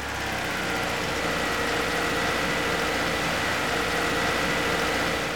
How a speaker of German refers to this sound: Wie laut ist nur der Motor, gemessen im Standgas bei 2000 Umdrehungen, was Tempo 50 entspricht?